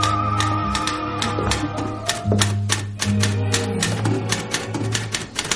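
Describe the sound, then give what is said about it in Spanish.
Rapid typewriter keystrokes clatter in a dense, fast rhythm, loud, with a low steady hum running underneath throughout, as a woman in an office copies a document on the desk typewriter, typing very fast using only her index fingers. “le da la vuelta a la máquina de escribir del escritorio, coge un documento que hay junto a ella y lo copia.”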